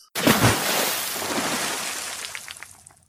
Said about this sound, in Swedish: Åh, oh, man hör ju vattenfallet.